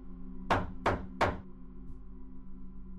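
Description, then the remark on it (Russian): Three firm knocks on a front door at three in the morning, evenly spaced about a third of a second apart, distinct against a low, steady background hum. “В мою дверь постучали три раза. В парадную дверь.”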